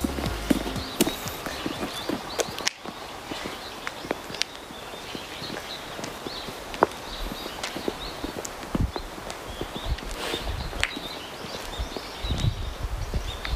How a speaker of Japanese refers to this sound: このせっかくやからさ、うん、この風の音とかさ鳥の鳴き声とかさ、うん、ちょっと感じてもらうね静かに、用意スタート